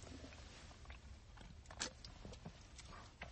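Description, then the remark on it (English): Sipping black cherry White Claw hard seltzer from a can, with soft slurping, wet mouth clicks and a swallow or two over a few seconds. Nobody speaks. “It actually feels weird to have that first sip for the night.”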